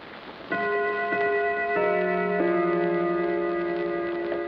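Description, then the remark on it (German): A German gong clock strikes the half hour, three resonant metallic tones struck one after another, each ringing on and overlapping the next. Fairly loud, with no voices. “Deutscher Gong, Halbstundenschlag.”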